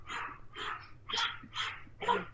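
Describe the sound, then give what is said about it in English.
A chihuahua named Buster barks five times at someone at the door, in a steady, rapid rhythm, each yap short and high-pitched, moderately quiet with no voices. “He's a chihuahua and he thinks he's a guard dog.”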